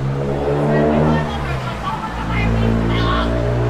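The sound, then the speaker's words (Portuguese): Loud car engines rev steadily, their droning pitch rising and falling as vehicles pass, with a faint murmur of voices mixed in beneath the motor noise. “Os carros já acabaram com o bom humor do menino.”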